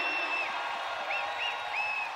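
A crowd applauding steadily, a dense wash of clapping that stays at an even level throughout, with a few short rising-and-falling whistles cutting through above it.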